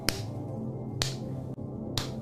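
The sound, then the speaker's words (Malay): A hand pats a sleeping child gently and steadily, three soft slapping taps about a second apart, over a quiet background with no one speaking. “So saya tengah tepuk ni Adik saya berbual lagi Saya berhenti Saya berhenti tepuk Berhenti tepuk anak saya yang tengah tidur Masalahnya Bila kita berhenti Tepuk gini kan”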